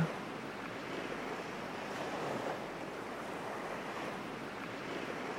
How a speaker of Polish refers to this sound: Poczuj, jak te fale, które szumią, przypływają i obmywają Twoje stopy.